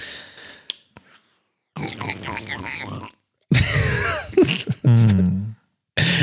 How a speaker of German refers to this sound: schlürfst du das aus so einer Schüssel